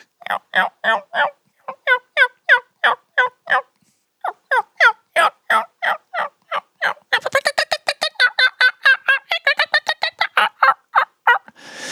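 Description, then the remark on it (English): A wild turkey hen yelps at dawn in a long, steady series of sharp, nasal calls, pausing briefly before speeding into a faster, louder run of yelps, with no talking. “And I was thinking, man, just like a woman, already yipping, ain't even out of bed awake yet, you know?”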